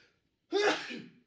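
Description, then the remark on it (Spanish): A single sharp, loud sneeze bursts out after a brief quiet moment, with a short breathy trail as it fades. “Ah, perdón. Salud. Perdón.”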